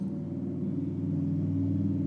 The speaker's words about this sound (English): are you serious? It should be illegal to have cars that loud. Do y'all hear that? Oh my gosh, sorry.